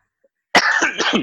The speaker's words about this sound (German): Also das Husten müssen wir, das Husten müssen wir rausschneiden.